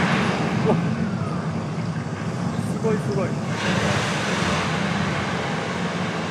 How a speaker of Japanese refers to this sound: ダムから放流されました